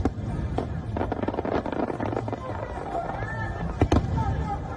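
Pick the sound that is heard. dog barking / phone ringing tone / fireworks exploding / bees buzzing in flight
fireworks exploding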